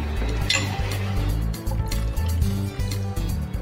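A little water splashes into a pan of well-roasted tomato and spice masala for a paneer and peas gravy, making a steady sizzling rush with a few metallic clinks from the pan; no one speaks.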